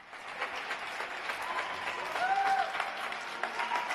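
Steady applause from many people at their windows, recorded across France at 8 pm during the coronavirus lockdown, a dense patter of clapping with a few whistles rising above it, sustained throughout with no talking.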